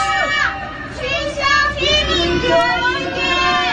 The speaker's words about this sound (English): They're chanting abolish lockdown sites in residential communities. But listen after the chanting stops. okay. The people can't take it anymore. This guy's just literally on his balcony with a phone. I guess this happens every night.